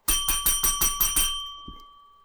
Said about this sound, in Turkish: Hadi bir zilimizle kutlayalım şunu.